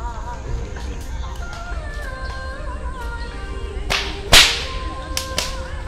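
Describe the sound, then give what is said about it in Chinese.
A whip cracks a few times in the back half as an old man practises with a kung fu whip, with one loud, sharp snap between two quieter ones, over a steady murmur of background sound with faint tonal calls. “这边是练鞭子的老爷爷，但是你可以看到很多的功夫武器练功的，有鞭子，然后有刀，有枪。”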